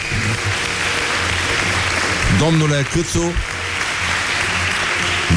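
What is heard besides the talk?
audience applause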